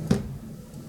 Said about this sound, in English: Oh my gosh, a chickadee just flew against my window and knocked itself out.